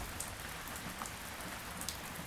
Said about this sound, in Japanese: 雨が止む気配はない排水能力を超えてしまった雨水が雨どいから溢れ出ている